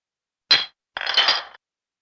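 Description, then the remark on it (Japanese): Glasses clink together in a toast: one bright, sharp clink, then after a short pause a longer, jangling clink that rings and fades. Moderately loud, with no talking. “乾杯乾杯”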